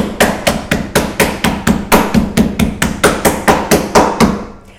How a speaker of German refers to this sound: Das heißt, wir schneiden es nicht auf, sondern wir klatschen es so lange platt, bis es so dünn ist wie Carpaccio, dass wir, wenn es ja. gefroren wäre, abschneiden würden.